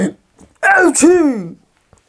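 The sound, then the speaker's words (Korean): A voice performs a loud, theatrical sneeze as the wolf in a told story, sneezing at a pig's house door: a drawn-out rising inhale sound followed by a forceful burst, lasting about a second, with silence on either side. “하지만 바로 그때 요란하게 또 재채기가 터졌어.”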